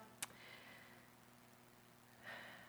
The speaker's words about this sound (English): we're taking a deep breath right now, breathing you in and releasing all of our cares, anxieties, and concerns upon you.